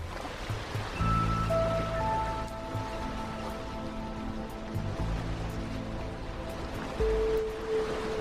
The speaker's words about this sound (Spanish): Un rincón para contenidos culturales desde la isla de Mallorca en España rodeados por el mar Mediterráneo de color azul turquesa y una brisa marina.